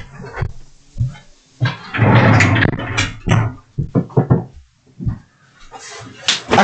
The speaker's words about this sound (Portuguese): Deixa eu só fechar a porta aqui.